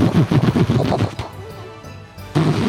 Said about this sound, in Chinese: 那个人们呢，在过年的时候会放着噼里啪啦的鞭炮的声音哦